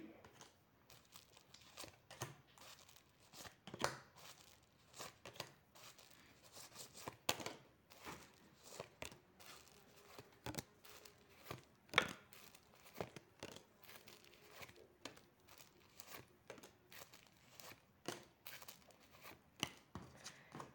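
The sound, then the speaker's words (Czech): Tarot cards are shuffled, drawn and flipped over, with dense papery rustling, crinkles and sharp snapping flicks repeating irregularly throughout. Fairly quiet, with no speech. “Tak moment, tahám karty.”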